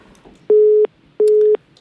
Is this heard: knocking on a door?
no